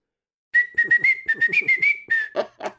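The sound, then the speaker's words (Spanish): A person whistles a show's theme tune, a steady high pitch broken into quick rhythmic notes, a few sliding upward, ending with breathier, airy blasts. “¿podrías por favor silbar el tema de Todopoderosos?”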